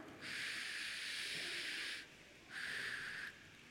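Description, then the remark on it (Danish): A person blows air through their mouth to imitate wind blowing during a rainstorm: two long, steady hissing gusts, the first about two seconds and the second shorter, with no speech. “Samtidig blæser det også, mens det regner.”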